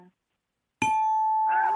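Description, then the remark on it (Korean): A loud ding-dong-dang bell chime strikes suddenly and rings on with a bright, sustained tone, and a voice begins talking over the fading ring near the end. “딩동댕을 많이 받았기 때문에”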